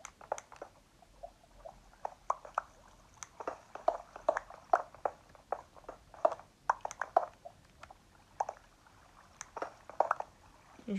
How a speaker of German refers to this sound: Ich, ich höre Lava. Warte, ich mache mal volle Lautstärke.